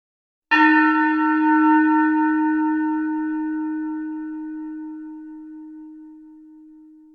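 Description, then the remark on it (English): A single meditation bell is struck once, ringing out with a clear, steady tone that slowly fades over several seconds into silence, with no voices present. “And I'm going to cue up the sound of the bell just as you start to settle into the feeling of the body right now as I cue up this sound.”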